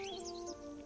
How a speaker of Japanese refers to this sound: 静かな湖のほとりで様々な鳥たちの時に高く時に低い耳に心地よいさえずりを聞いていると長く寒い冬を経てようやく春の暖かい息吹を迎えうららかな春の景色を楽しんでいる鳥たちの喜びを感じられる気がします。